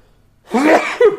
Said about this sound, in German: Sekunde, ähm, kurz mal niesen? Ja, ja, klar.